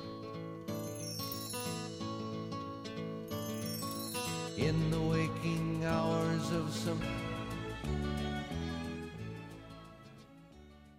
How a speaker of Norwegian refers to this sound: Der fikk vi høre en låt